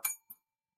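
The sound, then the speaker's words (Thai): A short bright ding of a bell pressed by hand, struck once and quickly fading, followed by a softer second tap a moment later, fairly quiet with silence after. “ผมกดกระดิ่งเพื่อให้แองเกอร์ไปในติตใต้สำนึกคุณด้วยนะว่าคุณแอคเซปต์มันโอเคไหม”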